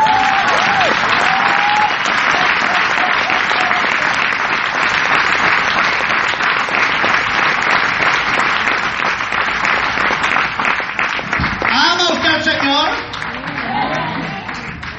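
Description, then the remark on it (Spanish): An audience applauds steadily after being asked how many love the Lord, a dense wash of many hands clapping for most of the stretch, then it thins out near the end as a voice begins speaking over the fading claps. “¿Qué aplauso tan raquítico ese?”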